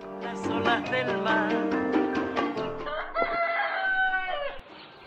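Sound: rooster crowing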